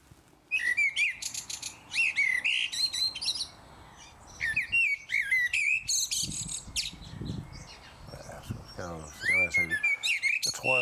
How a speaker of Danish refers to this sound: Øh, men den der, det kunne godt være solsorten.